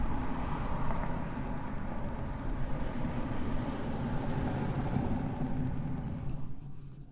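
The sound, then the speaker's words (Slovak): A steady, broad rumble of town traffic at half past seven in the morning on 20 May 2020, low and continuous, with faint engine hum rising and falling and no voices, heard from a window of the Bašta as the town wakes up. “Bašta ešte spí, ale už sa tu prebudza mesto.”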